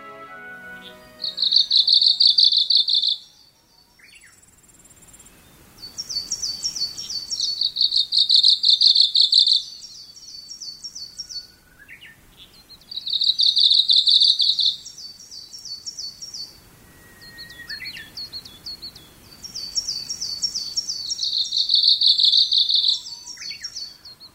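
A Kamchatka leaf warbler (Ōmushikui) sings four high, rapid, rhythmic 'chochori chochori' phrases of repeated chattering notes, each lasting a few seconds with short pauses between, from a slope forest at about 1,600 m elevation within view of Mount Fuji, clear against a quiet outdoor background with no talking.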